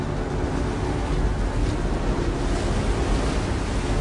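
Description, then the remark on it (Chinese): A huge tsunami wave roars and churns in a scene from the film San Andreas, as a speedboat races head-on toward it at top speed: a dense, steady rush of water with a heavy low rumble underneath, loud and unbroken for the whole stretch, with no voices. “影片的主人公雷和艾玛驾驶快艇以最高速度迎面冲向巨浪，试图到达海啸的顶端，躲过被巨浪淹没的命运。”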